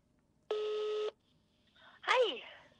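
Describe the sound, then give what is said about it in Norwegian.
A steady electronic phone tone sounds for about half a second, followed by a short burst of sliding, warbling electronic tones as a phone call is dialed and connects. “Nå glemte jeg helt å spørre om det, og akkurat det har jeg lyst til å vite, så nå ringer jeg opp igjen.”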